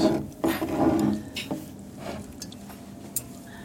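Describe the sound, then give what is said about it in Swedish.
A drinking glass slides and scrapes across a tabletop in a few short, uneven rubbing bursts, with a couple of light clinks and taps, and no one talking. “Jag flyttar på mitt glas.”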